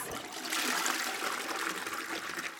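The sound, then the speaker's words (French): A toilet flushes, a steady rushing gush of water filling the full length with broad hissing noise and no voices. “Or, tirer la chasse d'eau dissémine les bactéries dans l'air.”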